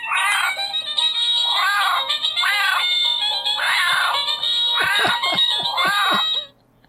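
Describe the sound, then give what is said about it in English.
A tinny electronic tune plays loudly from a small speaker in an opened Exploding Kittens card game box, full of squeaky, cry-like vocal bursts over a steady high tone, running about six seconds before cutting off abruptly. “But what I love about these, and our podcast listeners are going to be able to enjoy these is when you open the box, it makes noise.”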